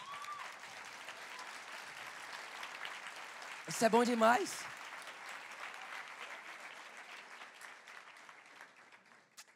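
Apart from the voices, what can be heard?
audience applause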